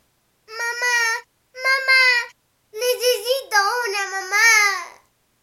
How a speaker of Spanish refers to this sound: Choco se sintió tan triste que empezó a llorar.